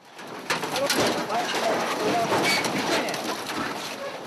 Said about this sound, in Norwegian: Lyden av brente metallplater som løftes opp av soldater med verneutstyr og ansiktsmasker.